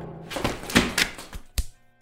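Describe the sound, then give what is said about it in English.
A run of about five knocks on a door, hollow thuds at an uneven pace, moderately loud, with no voices. “Someone's at the door.”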